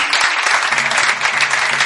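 Steady, dense applause from a quiz show audience for a contestant's correct answer, a continuous crackle of many hands clapping at an even loudness throughout, with no voices standing out.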